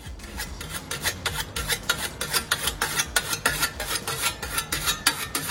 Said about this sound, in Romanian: e ascuțitul coasei